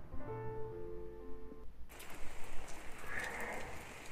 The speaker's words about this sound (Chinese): 现在是二零一九年二月十五日凌晨两点二十一分，我这在下雨，你那呢？给你来听听我这的雨声吧。